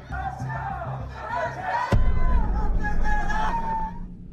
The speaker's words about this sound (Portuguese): O clima ficou tenso e muitos manifestantes discutiram. Começou um confronto na rua em frente a Congonhas.